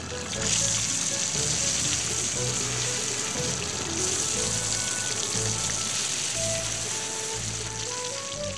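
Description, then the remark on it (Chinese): Water runs steadily in the shower area of a public bathhouse where many people are washing their hair and bodies, a continuous broad hiss that holds an even, fairly loud level throughout without pause, with faint indistinct sounds beneath the spray. “于是，小葱跟着阿公和大鬼一起走到了离浴池有一点点距离的淋浴区去，那里已经有好多人在洗头洗澡了。”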